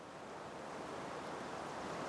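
A steady, continuous wash of water lapping against a bank of the Potomac River, soft and even throughout with no distinct splashes, heard on its own without any voices.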